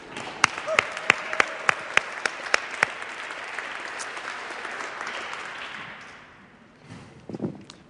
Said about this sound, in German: Hey, Canton Bern noch einen Applaus.